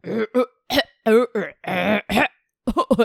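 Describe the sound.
A voice imitates the language of the Tierra del Fuego people, which Darwin said sounded like coughing: a string of harsh, guttural, throaty bursts, some voiced and drawn out, then a pause and a quick final cluster of short coughing syllables.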